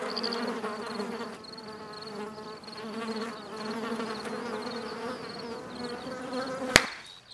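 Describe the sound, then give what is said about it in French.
A mosquito buzzes steadily, a high whining drone that wavers slightly in pitch, until a single sharp smack cuts in near the end. “Quatrième et dernier épisode, le moustique.”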